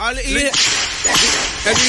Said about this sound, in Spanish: Dame un latigazo.